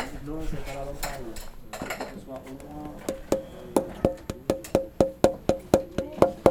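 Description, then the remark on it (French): Someone speaks briefly, then a steady run of about fifteen crisp taps on a wooden instrument soundboard follows, each knock ringing with a short hollow resonance at an even, quickening pace. “Là maintenant, j'aurais pas entendre les zzzz en tapant.”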